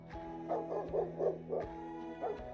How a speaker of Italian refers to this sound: Scese nuovamente il silenzio tra loro, mentre all'esterno Uruz aveva incominciato ad abbaiare furiosamente e a grattare sulla porta chiusa.